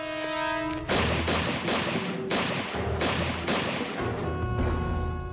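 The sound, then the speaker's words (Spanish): A rapid volley of about seven loud, sharp gunshots cracks out, each blast ringing into the next, following a brief sustained horn-like tone; no one speaks. A car's driver, stopped by police officers, gets out of the vehicle and fires at them. “Este bajó del vehículo y se puso a disparar.”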